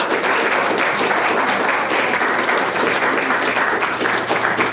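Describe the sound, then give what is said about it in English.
A room full of people applauds steadily, a dense, even wash of many hands clapping at once that stays loud and constant for the whole stretch, with no voices standing out. “I think they all deserve an extra round of applause”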